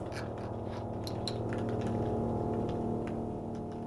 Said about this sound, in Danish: Drengen lader en mus køre ned over de mange filer, der ligger i en mappe på computeren. Der er over 400 filer, så han skal rulle et par gange for at komme ned i bunden.